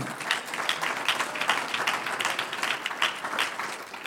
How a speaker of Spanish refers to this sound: Un aplauso al Señor.